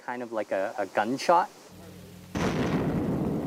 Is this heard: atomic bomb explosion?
yes